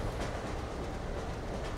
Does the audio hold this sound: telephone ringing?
no